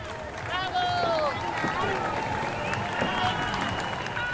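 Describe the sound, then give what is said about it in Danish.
A dense outdoor crowd at a marathon finish line by the Brandenburg Gate roars and claps steadily as runners finish, with whistles and scattered shouts rising over a continuous wash of cheering, loud throughout. “Vi er nu kommet op til, hvor maratonet slutter, op ved Brandenburger Tor, hvor de løber i mål.”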